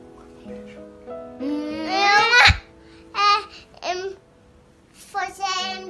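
An infant babbles in short, rising vocal bursts, with one louder squealing peak and a few brief pauses between sounds.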